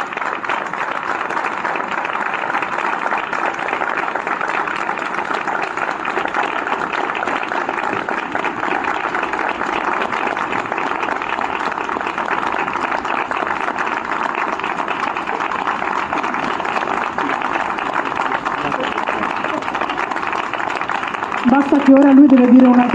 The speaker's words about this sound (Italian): ma direi che hai iniziato alla grandissima, quindi un applauso per favore, ma enorme proprio.